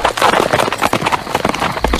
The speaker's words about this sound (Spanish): Tomé el caballo y partí inmediatamente.